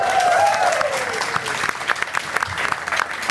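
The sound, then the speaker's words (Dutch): A full studio audience at the first broadcast of season 2 of Talk of the Town applauds steadily, dense clapping with a few whoops or cheers rising at the start, fairly loud, with no talking over it. “Ja, en met publiek weer. Dat is natuurlijk ook hartstikke fijn. Volle bak, eh, heerlijk.”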